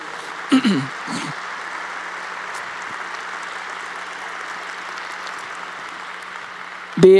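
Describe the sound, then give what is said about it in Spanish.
Steady, dense applause from a crowd fills the whole clip, a continuous hissing patter of many hands clapping, with a few brief voice sounds rising over it at the start and end; an audience applauding the King, God, during a religious service. “Dale fuerte ese aplauso al Rey.”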